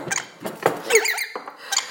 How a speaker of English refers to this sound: oh, oh, birds. God damn. they fighting on my shoulder, and I'm trying, I'm really desperately trying to make myself a coffee. You two, stop it! Oh my god! bird wars, man.